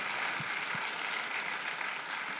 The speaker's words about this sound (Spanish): Así que démosle un aplauso a ese Dios que nos permite todas estas cosas.